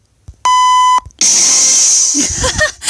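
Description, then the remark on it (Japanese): A sound-effect button is pressed and plays a single steady, bright electronic beep lasting about half a second, followed by a loud hissing burst and some brief scattered sounds. “え、これい一旦全部押してみていいですか”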